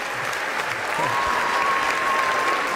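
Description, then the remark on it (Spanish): Steady applause from a crowd, a dense wash of clapping that holds at an even, fairly loud level throughout, with a faint sustained tone running underneath for the second half. “Unos aplausos, claro que sí.”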